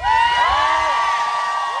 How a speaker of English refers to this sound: Well, you got a lot of applause there, Tom Steyer.